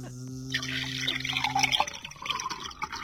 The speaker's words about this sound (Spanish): Pero si apretás este botón, empieza el hidromasaje, se calienta el agua